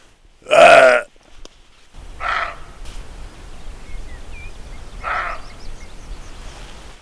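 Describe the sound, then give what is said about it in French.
A roe deer gives a harsh, hoarse barking cry: one loud bark, then two fainter ones spaced a few seconds apart, over a low outdoor hum with faint birdsong. “C'est vraiment le cri d'un animal blessé en fait.”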